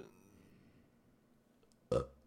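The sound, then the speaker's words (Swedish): A single short, loud burp erupts after a stretch of faint low background noise, rough and guttural with a quick onset and fast fade. “Det var en bra rap!”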